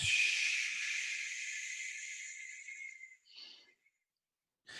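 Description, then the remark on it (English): A long, steady breathy exhale hisses for about three seconds, fairly loud, trailing off into a short softer puff before a brief new breath sound at the end; a person doing a breathing exercise, exhaling after breathing in through the nose into the diaphragm. “About four seconds, let's say and then I do a long exhale, and you can make a sound where it's like this.”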